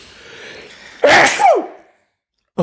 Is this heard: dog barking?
no